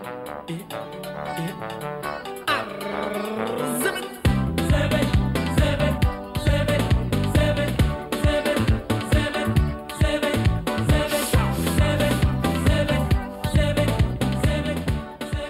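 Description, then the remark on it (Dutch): Up-tempo Ivorian zoblazo dance music with local influences plays loud: a melodic opening, then a heavy, driving bass beat kicks in after a few seconds and pulses steadily to the end. “Dat is echt up-tempo dansmuziek met een hele duidelijke plek ook voor lokale invloeden.”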